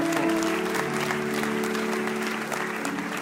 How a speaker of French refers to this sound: Et que tous ceux qui le croient disent Amen et applaudissent